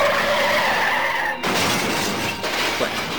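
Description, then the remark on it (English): A loud, sustained tire screech for over a second, then an abrupt crash of smashing metal and shattering glass that rumbles and clatters on afterward: an automobile accident. No one speaks. “She is Paul's nurse, tending to his shattered body after an automobile accident.”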